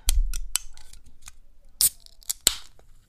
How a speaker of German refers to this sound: Nein, es war ein, äh, ein Spezi, eine Spezi-Dose.